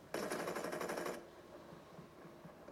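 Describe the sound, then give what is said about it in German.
A rapid burst of automatic gunfire in a video game, a player spraying shots from a distance: about one second of fast, evenly spaced shots, loud, then it cuts off into a quieter, muffled background. “Guck mal, er, er versucht zu sprayen auf dieser Entfernung.”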